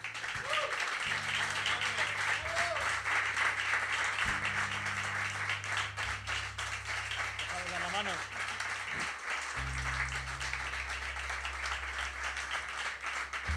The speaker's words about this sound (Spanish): Gracias de corazón por vuestra atención. Un aplauso a todo el equipo.